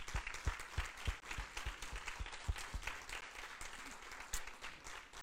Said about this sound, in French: juste qu'on puisse donner une main d'applaudissement au Seigneur.